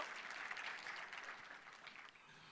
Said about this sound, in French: Oui, on peut, euh, on peut applaudir.